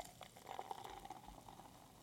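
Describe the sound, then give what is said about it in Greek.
Liquid is poured into a glass and fizzes, a steady low gurgle with a crackling foamy hiss on top, fairly quiet, running continuously for a couple of seconds with no voices. “το ακούσω όλο αυτό και τον αφρισμό.”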